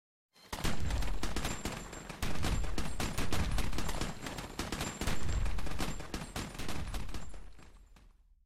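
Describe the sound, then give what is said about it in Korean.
A loud, sustained fusillade of gunfire, depicting the 1900 shooting in Honolulu's Chinatown: many sharp, overlapping shots crackle in rapid, uneven bursts for about eight seconds, with no voices heard. “그해 호놀룰루의 중국인촌에서는 아마도 기획된 총격으로 4천 명이 사망했다.”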